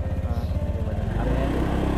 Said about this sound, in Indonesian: suara motor sorry nggak dikati Gak tahu motornya apa vario tekno 150